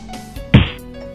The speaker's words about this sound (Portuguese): Existe o cuidado prévio antes de cozinhar o polvo, mas é verdade mesmo. Coloque-o entre duas tábuas e bata bem nele para maciar a carne.